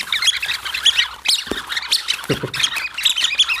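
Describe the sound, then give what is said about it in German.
A dense flurry of high, chirpy squeaks from several rubber-finger whistles obtained from France, air pushed back and forth inside them, overlapping rapidly like a chattering flock, fairly loud with no voices. “sind nur so Gummifinger mit so Pfeifen, die vor zurücklaufen halt”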